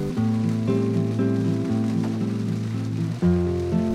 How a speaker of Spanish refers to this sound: No sé qué estará pasando ahora cuando escuches este programa, pero en mi ahora está lloviendo.